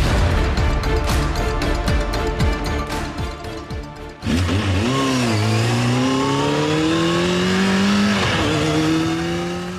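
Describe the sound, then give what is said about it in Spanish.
Motorcycle engines on the roads of Castilla y León, Spain, in cold weather roar loudly and continuously, first a dense rumbling blur, then a single engine revving up and down in repeated rising sweeps as it accelerates. No voices. “Estamos en tiempo de frío, lo comentábamos al principio, y el frío en estas tierras castellanas viene acompañado, entre otras cosas, de motos, por eso escuchaban este sonido.”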